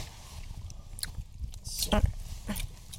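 Soft chewing with irregular wet clicks and smacks over about three seconds, a few louder bursts standing out against a low, steady background hum.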